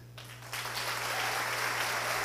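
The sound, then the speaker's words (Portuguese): A church audience bursts into loud, sustained hand clapping for Jesus at a Christmas musical. A dense crackling wash of many hands swells after a brief quieter start, accompanied by a steady low hum. “Como que a gente aplaudiria se fosse de fato palmas que engrandecesse o nome de Jesus?”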